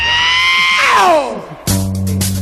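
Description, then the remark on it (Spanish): A funk singer on a record lets out a loud, high, sustained scream that bends and slides downward, then a band bursts in with punchy funk music right after. “Mira cómo grita.”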